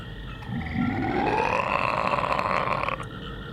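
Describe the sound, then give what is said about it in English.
A recording of a frog giving a single long, eerie croak, drawn out for a few seconds with a rising, groaning pitch over a low murky rumble in still surroundings. “Uh, the frogs told me to. It was in the recordings.”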